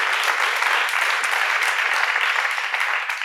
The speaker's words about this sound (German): Danke für den Applaus. Danke.